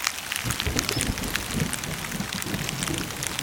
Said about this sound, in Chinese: 伴随着雨声的是几道闪电，毫不客气地划破了天空